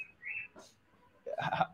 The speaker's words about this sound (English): okay, these birds are going nuts here. Um, sorry guys.